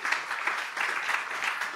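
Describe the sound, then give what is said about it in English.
An audience breaks into sustained applause as a hand clap of praise to God, a dense, steady wash of many hands clapping at once with a bright, crackling texture and no voices heard over it. “Can you give God a hand clap of praise for that?”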